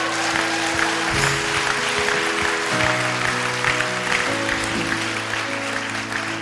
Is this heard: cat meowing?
no